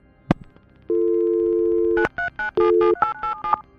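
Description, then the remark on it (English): A flip mobile phone's electronic tones as it is flipped open and a number dialed: a sharp click, a sustained steady beep, then a quick run of short keypad dialing beeps in an uneven rhythm, clear with no voices. “He flipped open his mobile and sent a text message, and then he dialed a number.”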